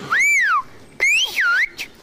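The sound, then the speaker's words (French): Whistled speech in the Occitan language: a few loud whistled phrases that swoop up and down in pitch, separated by short pauses, with no ordinary talking. “ça va donner quelque chose qui ressemble à la version orale siffler tout en parlant, ou, parler tout en sifflant”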